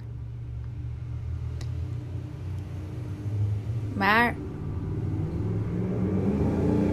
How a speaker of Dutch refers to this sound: even een heleboel herrie, want er komen opeens allerlei motoren langs of zo. Excuus. Jongens, een beetje zachter.